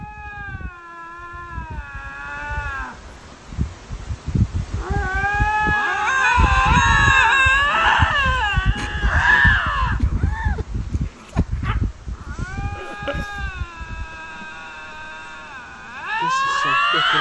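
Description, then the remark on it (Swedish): Two lynxes fighting, trading drawn-out, wavering yowls and harsh screams that rise and overlap, loud, with brief pauses between bursts and no talking. “Men så här, för er som har funderat på hur lodjur låter, så här låter de när de bråkar.”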